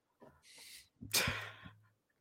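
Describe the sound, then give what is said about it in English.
A single sneeze: a quick breathy intake builds into one explosive, hissing burst with a voiced edge, then trails off into quiet. “bless you.”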